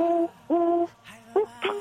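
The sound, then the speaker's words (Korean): A voice mimics a turtle dove's cooing in a voice impression contest: four low, hollow hoots in an uneven rhythm, the first two longer and steadier, the last two shorter, clear with no other sounds. “비둘기부터 시작하겠습니다. 비둘기 소리예요.”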